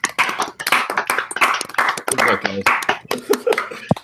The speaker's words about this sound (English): let's clap for the kids, shall we? for them go to the championship.